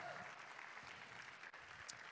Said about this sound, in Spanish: ¿Alguien le puede dar un aplauso al Señor? Vamos, a darle un aplauso. Todo el que quiera ser renovado hoy en el Señor, den un aplauso al Señor. Come on.